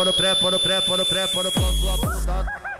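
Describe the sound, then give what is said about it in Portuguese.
A distorted, buzzing 'twin' effect from funk music, imitating the auditory hallucination caused by the drug lança (loló) used at São Paulo street parties: rapid, pulsing electronic tones stutter over a thin high whine, then deep booming bass hits take over before it cuts off. Loud, no voices. “Twin é como o funk chama a alucinação auditiva provocada pelo lança ou loló, a principal droga dos rituais dos bares de rua em São Paulo.”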